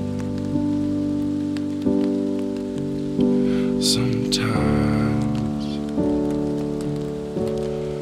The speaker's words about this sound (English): Sometimes you gotta turn off the TV to hear the rain.